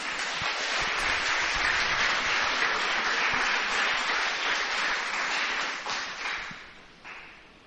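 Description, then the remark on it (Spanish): A large crowd claps for the Lord in sustained, dense applause that stays steady and loud, then gradually thins and fades out over the last couple of seconds. “Le da un fuerte aplauso al Señor por eso.”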